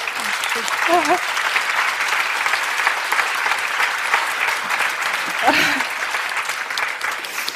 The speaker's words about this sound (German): Und das hat einmal Applaus verdient